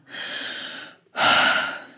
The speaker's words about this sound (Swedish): Jag ska bara andas lite.